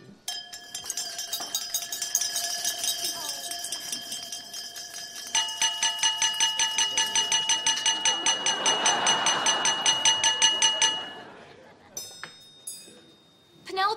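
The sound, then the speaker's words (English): Glasses being clinked with utensils at a wedding reception so the couple will kiss, a steady rapid ringing tap from many glasses at once, building for several seconds before stopping abruptly, with crowd chatter murmuring underneath. “Why don't you clink your glass so they have to kiss?”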